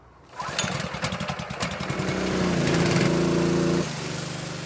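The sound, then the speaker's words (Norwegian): A petrol-engine water pump, used by the crew of the rescue boat Uni Oslo training to remove water from boats, starts up with a rapid sputtering chug, revs into a loud, steady drone, then drops back to a lower, rougher idle near the end. “Sjåken er der, tenninga er der. Står den på? på. Ja.”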